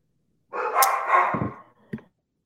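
Dogs bark excitedly: a loud, drawn-out burst of yapping lasting about a second, then one short sharp bark, with no one talking.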